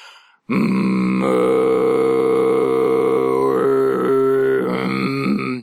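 A low, rough Tuvan throat-singing drone, a subphonic tone with a gravelly, subharmonic growl, held steadily for about five seconds with buzzing overtones shifting slightly toward the end. No speech accompanies it.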